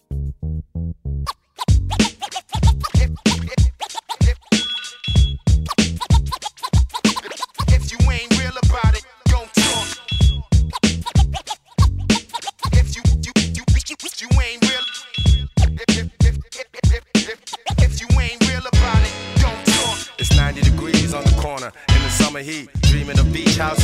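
A hip-hop track plays loud, with a punchy, steady drum beat, layered samples and scratchy turntable textures running continuously after a brief quiet opening.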